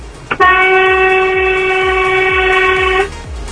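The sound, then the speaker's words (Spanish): A loud, sustained train horn blast holds steady for about two and a half seconds, then cuts off, with the rhythmic low clatter of rolling wheels continuing underneath throughout. “Ahí va ese bocinazo.”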